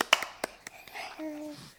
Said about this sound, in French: Bravo J'applaudis pour elle. Oui. J'applaudis aussi pour elle.